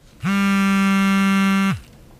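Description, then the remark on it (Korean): A pager in a pocket, being paged repeatedly by a friend, goes off with a single harsh, buzzy electronic tone held steadily for about a second and a half, loud, then cutting off abruptly. Nobody speaks. “그러면서 친구 녀석은 계속 저한테 삐삐를 쳐댔고 제 주머니에서 삐삐는 끝없이 울리면서 파리파리를 외쳐댔지만”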